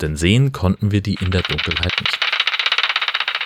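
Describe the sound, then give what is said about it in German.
A man speaks briefly, then a bat detector takes over with a steady electronic hiss full of rapid, rhythmic clicking and chirping pulses as it picks up a bat flying toward the listeners. The sound is fairly loud and continues alone to the end. “Man hört das schon im Hintergrund, das klickt und rauscht und das zwitschert aus dem Gerät.”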